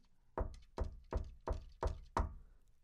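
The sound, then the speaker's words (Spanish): Six firm knocks on a door, evenly spaced in a steady rhythm, loud, with a short resonant thud after each and quiet in between. No voices. “Pero imagínense e, estar en la situación de que están a las 3 de la mañana y un cabrón les dice, si alguien aquí afuera y un demonio, alguien malo toque la puerta y se escucha en silencio total.”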